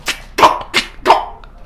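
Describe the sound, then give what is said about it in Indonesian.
Four sharp, harsh coughs in quick succession, each a short explosive burst with a barking, dog-like quality, fairly loud with no talking. “Lu uh, batuk apa di trot anjing? Suaranya udah mirip.”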